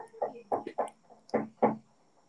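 A series of muffled knocks on a door, about six dull thumps in an uneven rhythm, fairly quiet, with no one talking.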